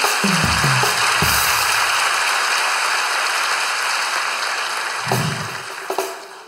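An audience applauds steadily for several seconds, a dense wash of many hands clapping that thins slightly toward the end, with a few low thumps and murmurs mixed in.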